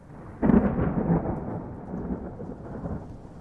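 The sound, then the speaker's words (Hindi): A deep roll of thunder breaks in suddenly and rumbles on over steady rain running down a large glass window wall of a conference room, the low booming slowly fading while the rainfall keeps hissing underneath. No one speaks. “कांच पर दौड़ती बूंदें मानो वक्त के छोटे छोटे टुकड़े हों जो साहिल अपनी उंगलियों से रोकना चाहता था पर वो बूंदे कांच के बाहर थी”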